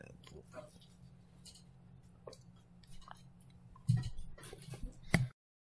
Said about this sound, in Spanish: Y trago de agua ya mismo. Que bueno, agua, esto es el té este de roibos, ese.